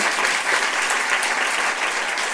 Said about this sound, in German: Ja. Das ist es. Applaus für die Großtante. Ja, Applaus für die Großtante oder Urgroßtante.